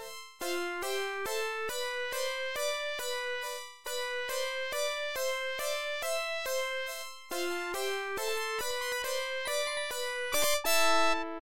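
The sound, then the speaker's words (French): A dramatic minor-key passage from the second part of a video game music piece, with a countermelody and bright, bell-like synth chords struck firmly on the beat in a steady pulsing rhythm, playing alone and clearly with no voices. “La deuxième partie est plus dramatique. Il y a un contrechamp et une affirmation de tonalité mineure, avec des accords marqués sur le temps à l'accroche.”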